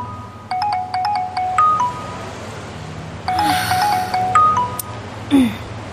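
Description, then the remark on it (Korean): A phone rings with a bright, beeping ringtone melody that plays two phrases with a pause between them, clear over soft outdoor background noise, while its owner is on the way home from work, then cuts off with a brief blip as it is answered. “아, 왜 또 전화를 늦게 받아?”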